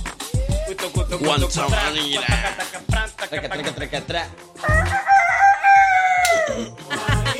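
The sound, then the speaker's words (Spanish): A loud rooster crow rings out in one long drawn-out call near the end, following several seconds of busy voices and clucking-like bursts. “Suena los leones. Suena el tigre. Arriba. los pollos.”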